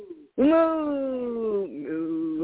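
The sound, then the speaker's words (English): A person imitates a cow's moo: one long, loud, drawn-out voiced note that slowly falls in pitch, then a shorter wavering tail. “I didn't add that to the sound effects. Thank you for the moo.”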